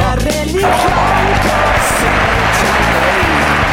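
Steady applause and crowd cheering fill the whole stretch, loud, with a rhythmic low thumping running underneath the clapping.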